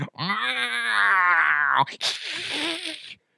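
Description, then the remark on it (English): A person imitates an alien creature's groan, a loud, drawn-out throaty moan lasting under two seconds, followed by a rough, breathy snarl that trails off abruptly. “I want like a creature in the background going.”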